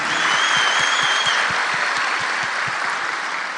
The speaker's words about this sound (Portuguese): Eu peço a eles assim uma carinhosa salva de palmas para a gente louvar a Deus, né?